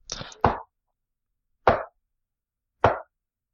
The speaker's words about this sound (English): You hear that knocking at the base of the tree.